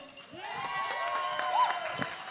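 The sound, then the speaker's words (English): An audience applauds steadily for a couple of seconds as the next competitor for the team "Acceptably Sweaty" is introduced, dense clapping mixed with shouts and a few rising whoops of cheering over the top. “So, coming up next for acceptably sweaty, give a round of applause for”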